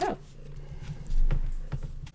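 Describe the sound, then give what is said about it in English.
A cat gives one brief, falling meow right at the start, then fades into quiet with a low hum and a few faint knocks. “this time i can hear it clearly that's awesome i love the free cat content”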